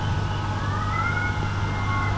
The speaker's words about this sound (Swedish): Katterna har tydligen bestämt sig för att delta också, så du får lyssna på dem